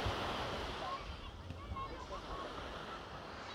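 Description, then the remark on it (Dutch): A steady, rushing wash of sea waves breaking along the shore, mixed with gusty wind noise, with faint indistinct voices in the background. “had hier even de sleutel van een auto vast en die ging daarmee naar de zee lopen wat niet zo slim is.”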